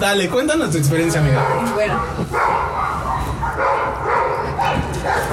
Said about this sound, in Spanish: Disculpen los perros de fondo, no los podemos callar. Es el público. Es el público. Estamos en una terraza.